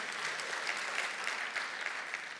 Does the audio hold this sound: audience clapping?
yes